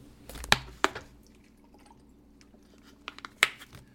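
Someone takes quiet sips of water: a few short wet clicks and gulps, two in quick succession near the start and another after a pause, with no talking.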